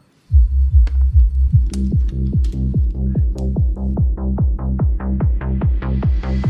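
A dance song from Sanremo kicks off with a pounding, steady bass thump, joined by pulsing synth stabs that build and brighten with a rising sweep toward the end; loud, with no voices.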